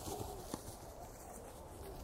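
Hooves clop irregularly as a herd of feral horses (baguales) walks along outdoors in search of better pastures, the footfalls soft over a steady bed of ambient noise, with one sharper knock standing out.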